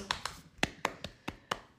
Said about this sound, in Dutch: Het is even geleden. Ja, even applaus